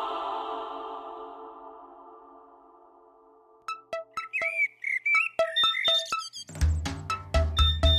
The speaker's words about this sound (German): Doch, mein Wecker. Es geht wieder los.